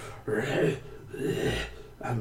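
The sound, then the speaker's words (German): A voice imitates a wounded creature's heavy, labored breathing: three long, rasping breaths in a slow rhythm, fairly loud, with no words spoken. “schwer am Atmen.”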